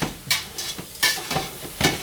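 Garlic sizzles in a pan under a steady hiss in a rented summer house while a utensil scrapes and clinks against the metal in four or five uneven strokes. No one speaks.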